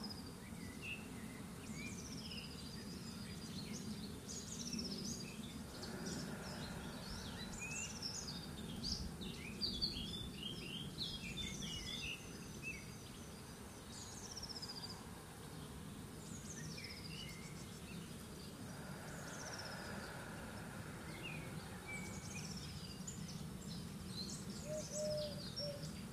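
Ambience in a garden full of birdsong, with many overlapping chirps and whistled calls throughout, over a steady low droning hum of buzzing bees. No one speaks.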